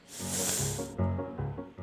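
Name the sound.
snake hissing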